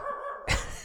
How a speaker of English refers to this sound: sorry about the dog in the background